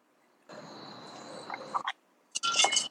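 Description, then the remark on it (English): Glasses clink together in a toast, a bright ringing tone followed by a couple of sharp clinks, with no voices. “But before we before you kick it off with some topics, man, you know we gotta do our do our toast. Indeed, indeed. So definitely cheer. Yeah, cheers, man.”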